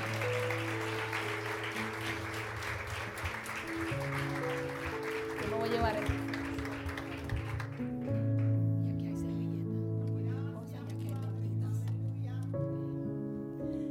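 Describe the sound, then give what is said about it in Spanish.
Scattered, half-hearted clapping from a church audience fills the first several seconds over sustained keyboard chords, then dies away as the music and a voice carry on. “Ese aplauso parece que tiene la hemoglobina como en cinco.”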